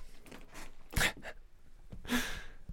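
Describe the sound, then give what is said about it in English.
A cat named Grey Kitty spits: two sharp, breathy hissing bursts about a second apart, rising out of a low rustling background. No one speaks. “Man, Grey Kitty got on here and fucking started spitting, to be honest.”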